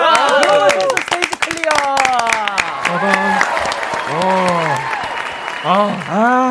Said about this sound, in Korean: 이제 박수 소리가 들리네. 아, 아 전까지 저희가 네. 스피커를 네. 끄고 있어서 박수 소리 안 들리는데 아.